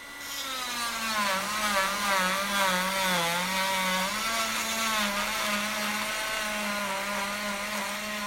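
A cast saw whines loudly and steadily for several seconds, its pitch dipping and wavering as it cuts a plaster cast off a person's legs at the AMC hospital in Amsterdam. No one speaks.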